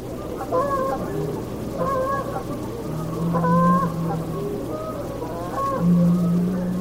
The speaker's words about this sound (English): The geese call out.